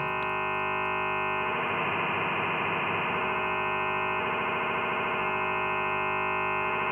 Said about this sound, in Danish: Og øhm, når man arbejder med frekvensmodulationssyntese, arbejder man stort set altid med sinusbølger. så kan jeg lade endnu en sinus tone påvirke den, der påvirker den første.